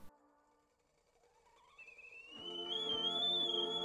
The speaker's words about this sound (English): Alice is brought to the present by the sound of a kettle whistling shrilly through the late afternoon air.